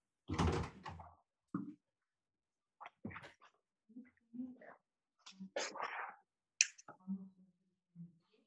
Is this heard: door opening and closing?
yes